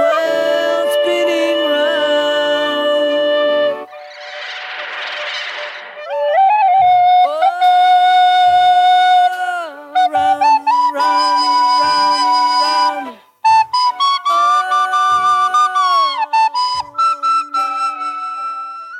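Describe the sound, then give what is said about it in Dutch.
A quiet pop song passage in a Dolby Atmos mix, with airy, flute-like melodic lines, a brief breathy swell, and soft, evenly spaced low drum taps, clear, with no voice singing at this point. “Het is bij die rustige nummers zo mooi. Dan hoor allemaal zo helder in zo'n ja. Atmos mix.”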